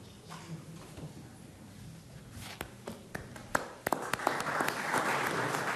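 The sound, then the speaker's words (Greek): Applause after the statements of the Turkish President and Greek Prime Minister Kyriakos Mitsotakis, with the Turkish President clapping first. It starts with a few scattered, sharp claps, then swells into steady, dense clapping from a group, growing louder toward the end with a low murmur underneath. “Οι δηλώσει των δύο ηγετών ολοκληρώθηκαν με τον Τούρκο πρόεδρο να χειροκροτά πρώτο”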